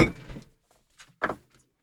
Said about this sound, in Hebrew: מה ששמעתם שנפל עכשיו, ביקשתי להגביר ונראה לי נפל פה ג'ריקן